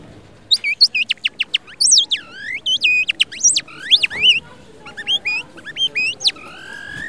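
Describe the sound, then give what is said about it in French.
A small bird whistle, sold and played by a Serbian street artist, trills and chirps, imitating birdsong with quick rising and falling tweets, rapid warbling runs, and short pauses between bursts, with no one talking. “Je vendrai un petit sifflet que tu peux imiter le son des oiseaux.”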